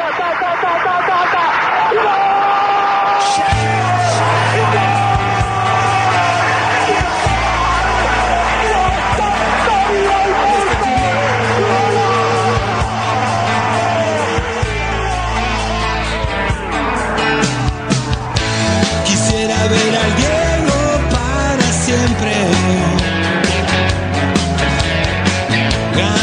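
A radio program's closing theme music plays loudly and steadily, opening with bright layered tones before a deep, pulsing bass line enters a few seconds in and carries through to the end.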